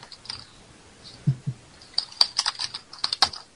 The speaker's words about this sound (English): Is someone smashing their keyboard? Not me.